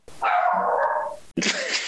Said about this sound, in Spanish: Te quiere opinar. ya, ya, ya, está bien, güey. Ladra, cabrona